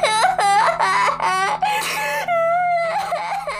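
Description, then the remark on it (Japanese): A woman wails and sobs loudly in front of a train station, a quick series of rising, breaking cries followed by a long drawn-out whimpering moan, with no other speech. “それから彼女は散々泣いて、占い師とのこれまでのやり取りを話し、ようやく落ち着いた頃には、駅前の人通りも減っていた。”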